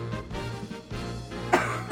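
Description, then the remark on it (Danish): Several muffled coughs from someone with an apple in their mouth, the sharpest burst coming near the end, with no talking. “Med æble i munden og hoster.”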